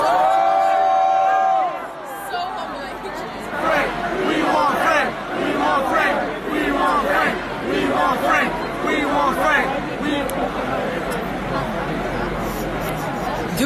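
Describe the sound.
A large crowd boos and jeers at a performer, a loud, continuous roar of many voices shouting over one another that swells and surges for the whole stretch.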